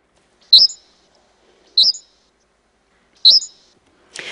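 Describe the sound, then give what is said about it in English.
A bird from Peter Szőke's 1987 Hungarian recording The Unknown Music of Birds, played at full speed, sings three short, bright, high-pitched chirps spaced about a second apart in quiet surroundings, followed by a brief breathy rustle at the very end. “It was released as part of Peter Szőke's 1987 Hungarian recording, The Unknown Music of Birds, where he records many birds and slows down their pitches to reveal what's underneath. Let's listen to the full speed recording.”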